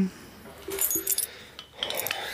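Car keys jangle in a few quick bright metallic shakes, with a short pause between bursts before a final rattle. No one speaks.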